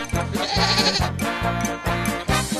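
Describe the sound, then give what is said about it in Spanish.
A loud goat bleat with a shaky, quavering tremble, breaking into several rapid pulses across a few seconds, with no voices present. “Ahí están las chivitas. Ahí con las barbitas.”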